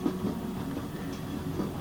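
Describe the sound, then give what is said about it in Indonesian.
A steady low rumble of a train carriage rolling along the rails at night, with faint rhythmic clatter underneath, heard from inside the air-conditioned carriage at a constant moderate level with no talking. “Begitu pula dingin akan AC yang beraroma kereta yang khas.”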